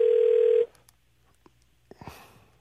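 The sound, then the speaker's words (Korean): A phone call being placed by a radio DJ to a listener: a loud, steady telephone tone holds for a moment and cuts off, followed by faint clicks and a few short crackly bursts on the line, with no talking. “자, 이번에는 저, 어, 우리 1, 6 2 5님한테 한번 걸어보겠습니다.”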